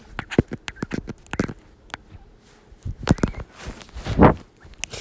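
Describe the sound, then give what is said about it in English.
A dog's paws patter in quick, irregular taps and scuffles, with a couple of louder bursts of movement; no one speaks. “So that's my dog.”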